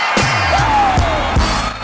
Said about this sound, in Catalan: Aplaudiments!